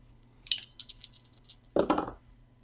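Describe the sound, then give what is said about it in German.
Dice are rolled against a target of 32; they rattle and clatter across a hard surface in a quick burst of small clicks, followed by a louder tumbling roll near the end, with no talking. “Ähm, ich habe jetzt letztes Mal plus 5%, das heißt, ich würfel auf 32, richtig?”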